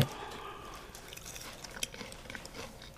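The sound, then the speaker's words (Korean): Crunchy chewing of crispy, chewy fried frog legs, with small crisp crackles and soft mouth sounds repeating steadily over three seconds; no one speaks. “바삭하면서도 쫄깃쫄깃한 게 오징어 튀김인가? 음, 개구리 뒷다리 튀김.”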